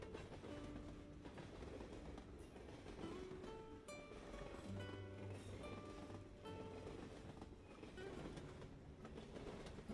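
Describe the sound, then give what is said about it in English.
A train rumbles steadily along the tracks with a continuous low roar and faint clickety-clack, heard from inside the carriage, with occasional tonal squeals and hums drifting in and out. “The vibrations from track to train, from train to seat, lull you further into a very deeply relaxed state.”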